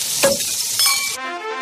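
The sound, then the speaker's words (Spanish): A chuletón steak sizzles loudly in a hot pan, a dense crackling hiss running steadily for over a second before cutting off into a brief ringing tail. No one speaks. “Y el chuletón con el que celebras cambiarte a línea directa, así.”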